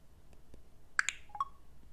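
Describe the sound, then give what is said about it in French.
A quick burst of about four short, bright smartphone confirmation beeps, stepping down in pitch, after a double-tap on the screen opens the clock app, clear against a quiet background with no talking. “Vous avez entendu, hein, le dou-dou-dou-dou. Ça, ça veut dire que vous avez réussi.”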